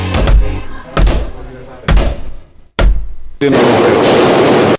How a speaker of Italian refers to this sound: secondo me quel rumore è l'ora esatta di RTL. Ma mettiamola, mettiamola a confronto. 102, 5, time.